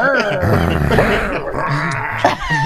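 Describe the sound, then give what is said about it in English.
A person growls, a low, rough, sustained snarl lasting a couple of seconds with a gritty rise near the end, a voice imitating an angry dog. “and then you growl at him.”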